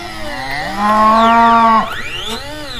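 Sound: cows mooing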